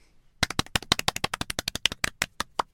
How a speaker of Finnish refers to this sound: Tämä on... Sattuu tämä mun sormeen, tämä meidän taputus on.